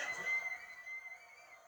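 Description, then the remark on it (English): A sustained, shrill whistle rings out from a wrestling crowd during a match between Austin and the Rock, holding steady over a low background murmur of cheering and noise. It sounds fairly quiet. “You can hear some crowds in the background whistling and making different noises and whatnot.”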